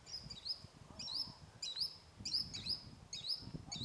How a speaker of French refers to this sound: T'as entendu Il est trop beau ce oiseau, j'ai pas bien vu ce que c'était dans le reflet du soleil, mais.